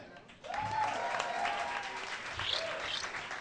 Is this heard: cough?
no